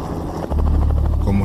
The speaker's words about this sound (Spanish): Partimos a mediodía. En el helicóptero. No era una nave de guerra